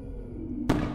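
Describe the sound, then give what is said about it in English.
A single firework burst erupts suddenly after a low, steady rumble, its sharp bang followed by a fizzing, crackling tail that fades out. No one speaks. “Are there really fireworks going off? Or is that just in my head?”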